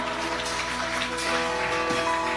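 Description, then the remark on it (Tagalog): A church audience claps steadily for the Lord after a prayer, a dense, even patter of many hands with no break, while sustained musical tones, like a held keyboard chord, hum underneath. No one speaks. “Sige po, ang palakpak ay para sa Panginoon.”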